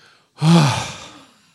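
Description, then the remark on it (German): One deep, audible breath, ending in a long sighing exhale with a slight voiced hum that fades out gradually. No one speaks. “Komm, wir atmen mal tief durch.”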